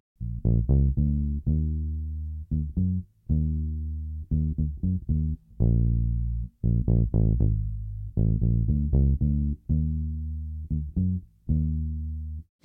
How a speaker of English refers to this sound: now, once the first verse starts, the keyboard stop playing that low note. And that's where the bass guitar comes in.